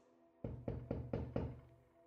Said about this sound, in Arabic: طرقت الباب مرارا كان موعدا سخيفا يناسب ضيفا سمجا وقحا مثلي